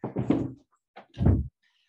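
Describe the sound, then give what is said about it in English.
A door is opened for a dog with two short clunks, a latch rattle followed by a heavier knock-like thud about a second later, and no voices. “I'm just going to open the door for my dog real quick.”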